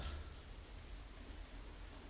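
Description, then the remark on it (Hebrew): Steady heavy rain pours down continuously, a dense hiss with a low rumble underneath, fairly soft in level and unbroken for the whole stretch, with no voices present. “איזה גשם. לא אפסיק לרדת לשנייה.”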